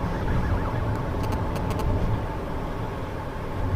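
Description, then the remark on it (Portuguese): Steady low rumble of a car driving, heard from inside the cabin, with continuous road and engine noise and a few faint high clicks or jingles partway through. “Mas eu tô dirigindo e eu não posso fazer isso, a não ser que vocês queiram que eu capote o carro e apareça com a cara arrastada no asfalto, quente.”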